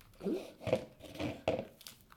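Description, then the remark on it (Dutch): A piece being broken by hand off the other half of a bell pepper full of seeds: a few crisp, crunchy snaps and tearing crackles in quick, irregular bursts, with no talking over them. “Ik breek dan een stukje eruit.”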